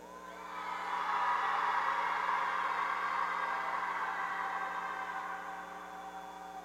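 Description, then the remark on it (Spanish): A large group of women shout together, imitating a war cry or the cry of a woman in labour, in one sustained, loud roar that swells quickly, holds for several seconds, then gradually fades. “Ay, qué parturientas. Son los gemidos de la bellación.”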